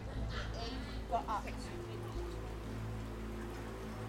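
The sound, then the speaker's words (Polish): Steady rain falls in a continuous, even hiss on a cold evening, 1 March 1932, at 9 p.m. outside the Lindbergh family home, with a low rumbling undertone and a few brief, faint tonal sounds rising over it. “Wszystko zmienia się w zimny, deszczowy wieczór 1 marca 1932 roku.”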